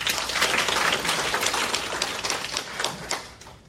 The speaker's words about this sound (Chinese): 所以你说伊丝碧媞的事业好不好？真的很好，再给一个掌声好不好？